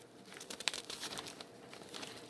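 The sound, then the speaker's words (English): Crisp rustling and crinkling of newspaper pages as someone looks through the paper for sports results, a steady run of dry papery shuffles with one sharper crackle near the start, with no voices. “I'm looking around here in the paper”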